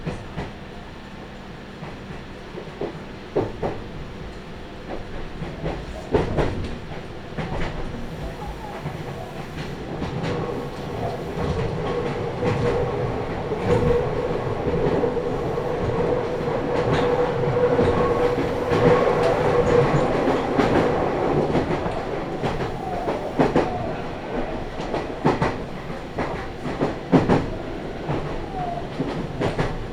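A Meitetsu (Nagoya Railroad) Toyokawa Line limited express train, bound for Gifu, running steadily along the rails from Toyokawa-Inari toward Kō, with a continuous low rumble, repeated clicking and clacking from the wheels, and a faint mid-pitched whine that swells slightly midway, no voices heard.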